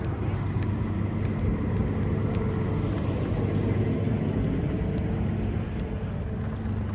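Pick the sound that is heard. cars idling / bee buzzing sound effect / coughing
cars idling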